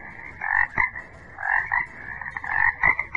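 A frog croaks in three loud, raspy pulsing bursts spaced about a second apart, with no voices, just a faint low rumble between calls.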